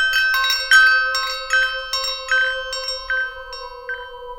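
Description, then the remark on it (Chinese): Wind chimes ring in a steady series of bright, overlapping metallic strikes, their high shimmering tones sustaining and layering over one another, with no voices present. “当你入住云顶高原的酒店时，也许还有些房间的风铃忘了拿下来。”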